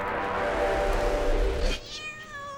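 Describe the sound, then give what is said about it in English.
A cat at the entrance of an alleyway lets out a long, drawn-out meow near the end, clear, following a stretch of steady low rumbling background noise. “Stupid thing just sits at the entrance of the alleyway staring at me.”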